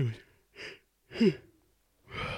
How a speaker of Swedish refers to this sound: Vad jag gäspar